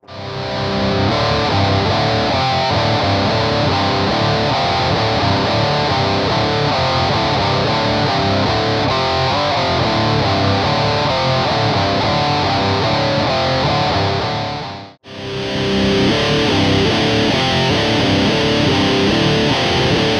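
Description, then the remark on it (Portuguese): Loud, heavily distorted electric guitar riffs, played through a full Tonlib amp simulator setup with an IR, play continuously with no talking, stop abruptly for a moment, then resume with a brighter, harsher tone. “O setup que eu criei e o som que, que, que eu consegui tirar.”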